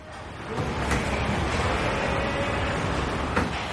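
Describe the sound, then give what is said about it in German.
A loud, steady roar of car assembly line machinery at the Volkswagen plant in Emden, Germany, fills the space as vehicles are assembled, broken by a few sharp metallic clanks and hisses, with no voices. “So hört es sich an, wenn der zweitgrößte Autobauer der Welt seine Fahrzeuge zusammenschraubt.”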